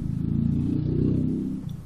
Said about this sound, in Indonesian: ngilangin kebosanan macet ini masih dari di Pasteur masih sekitar setengah perjalanan lagi nyampe garasi